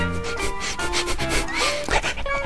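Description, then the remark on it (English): A dog named Peanut sniffs inside a big box in quick, repeated breathy bursts, a steady run of short noisy puffs over a soft sustained musical backing, with no one talking. “Peanut sniffs again.”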